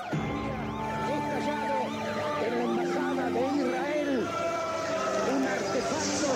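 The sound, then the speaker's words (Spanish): Several ambulance sirens wail at once at the scene of the 17 March 1992 terrorist bombing of the Israeli Embassy in Argentina, their rising and falling tones overlapping in a dense, continuous chorus, with indistinct voices and street commotion underneath. “Hay ambulancias, 17 de marzo de 1992 se cumplen 29 años del ataque terrorista a la Embajada de Israel en Argentina.”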